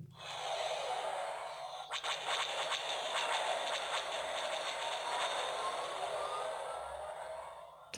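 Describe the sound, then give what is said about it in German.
A quick series of X-Wing starfighter laser cannon shots crackles over a loud, steady rushing roar that fills the whole clip, the bursts clustering near the start and fading into the continuous drone. “Ich aber die klingt auch nicht so das ist anscheinend die Schüsse vom X-Wing.”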